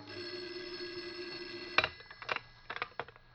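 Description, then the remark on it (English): A telephone rings with a sustained, shrill electronic tone for nearly two seconds, then cuts off into a series of sharp clicks and knocks, like a handset being picked up. “the phone rang. Its shrill ring filled the room.”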